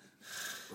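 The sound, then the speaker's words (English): A voice imitates a snore: one short, breathy snort-like rasp swelling over about half a second, with no words spoken, mimicking a man snoring while seemingly asleep and trying to say he can't find his phone. “but it's almost like he was like a like asleep, snoring, but trying to tell me he can't find his phone, and it's just so funny because like him being awake but also snoring, trying to find his phone”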